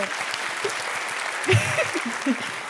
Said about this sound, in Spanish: Iván Logo, aplausos.